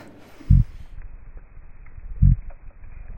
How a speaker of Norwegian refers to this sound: F.eks. torsk. der eh, altså Mannetorskene det er de som lager lyden, stort sett. Så lager de forskjellige typer grynt. Og så kommer hotorskene og vurderer hanntorskene basert på gryntet deres. For det gryntet sier noe om størrelsen deres.